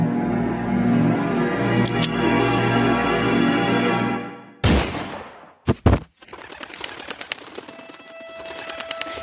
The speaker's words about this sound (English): The morning sky fills with crows who were spooked into flight from the gunshot as Vincent lays in the dirt, clutching his stomach.